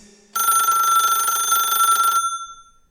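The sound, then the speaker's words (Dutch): An old-fashioned telephone bell sound used as a mobile phone ringtone rings in one continuous loud, rapid metallic trill for about two seconds, then cuts off, with a faint tone beforehand and a short fading tail. “Kleine side note, dit was nog in een tijd dat het cool was om het geluid van een oude telefoon op uw nieuwe gsm te gebruiken.”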